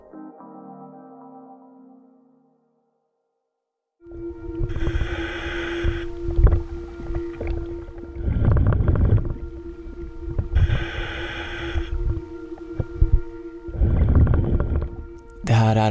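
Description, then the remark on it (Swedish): Muffled underwater sound recorded by a police diver swimming in murky brown water, with a steady low hum and rhythmic surges of breathing and bubbling roughly every few seconds, after a brief moment of silence. “en ljudupptagning från en av polisens dykare. Han simmar i ett brungrumligt vatten.”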